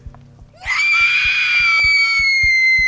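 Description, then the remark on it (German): A woman lets out a long, shrill, desperate scream that rises sharply and holds loud and sustained, while a steady low pulsing beat thumps beneath it. “Ihre mächtigen Lungen sogen den Sauerstoff in sich, ihr Herz pumpte mehr Blut in ihre Beine und voller Verzweiflung entfuhr ihr ein Schrei.”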